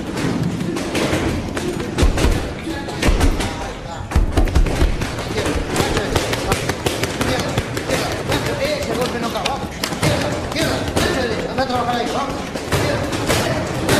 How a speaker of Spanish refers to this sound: El psicólogo le da un golpe a una bolsa de arena de boxeo.